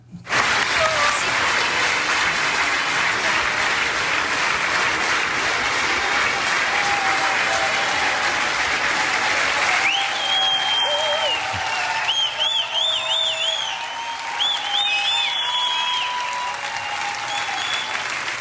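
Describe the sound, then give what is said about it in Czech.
A sold-out concert audience in the Aldis hall in Hradec Králové gives a standing ovation at the end of a concert, applauding loudly and continuously in a dense, sustained roar of clapping. Partway through, shrill whistles and scattered cheers rise above the ovation. “Mě by zajímalo, co cítíte, když celé hlediště stojí, tleská se slzami v očích.”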